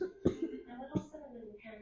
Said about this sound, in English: I I might cough a little bit, guys. I'm still a little, um, you know?